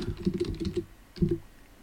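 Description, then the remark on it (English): A quick burst of computer keyboard typing as an existing domain name is typed into a Shopify store's domain settings: several rapid clicking keystrokes, a brief pause, then a couple more taps. No voices. “Now, I have an existing domain, so I'm going to click connect existing domain. And I have to type it in.”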